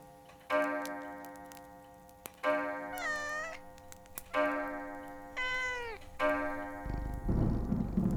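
A cat meows twice, clear, each call a bending, wavering cry, set against a steady sustained tone with faint ticking, ending in a burst of rough noise.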